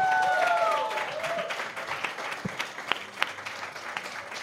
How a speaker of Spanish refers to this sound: Un aplauso, Un aplauso. para Lumara la bióloga, por favor.